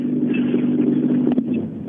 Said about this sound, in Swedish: Och en bil som kommer in till mig här, det är...